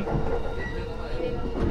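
A Yamanote Line commuter train rumbles steadily along its rails toward Shinjuku station, a continuous low roar with faint mechanical rattling, heard from inside the car at fairly constant loudness.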